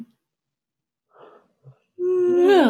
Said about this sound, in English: I don't know how I could possibly be tired, but I just had a big yawn.